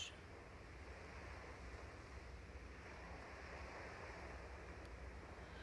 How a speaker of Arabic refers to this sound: لغاية ما نوصل على رمل البحر أبيض ناعم ملمسه مثل الحرير على جسمنا وعم نسمع صوت الموج